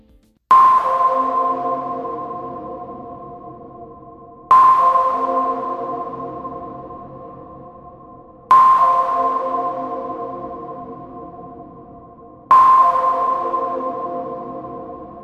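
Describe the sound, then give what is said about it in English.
A tone signalling that it is time to finalize an answer: a bright, bell-like chime struck four times at an even pace, roughly every four seconds, each strike ringing out and slowly fading before the next. No voices. “And afterwards, once it is time for you to finalize your answer, you will hear a tone like this.”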